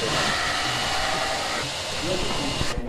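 A knife master sharpens a knife on a grinding machine, giving a steady, loud, hissing whir of motor and abrasive that runs unbroken for about three seconds before the high grinding edge cuts out.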